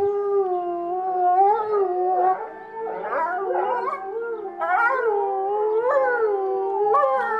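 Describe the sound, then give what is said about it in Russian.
Several wolves howl together in a chorus in February–March, long rising and falling tones overlapping continuously, with a few yips and whines mixed in. No one speaks. “Давайте сначала волков все-таки послушаем. Как они поют?”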